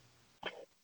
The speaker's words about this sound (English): That was a great time to crack the beer in the background, too.